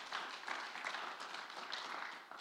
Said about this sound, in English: How many believes that a Christian should, should quit sinning? All right, go ahead and give a hand clap if you think that.